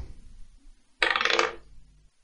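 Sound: twenty-sided die being rolled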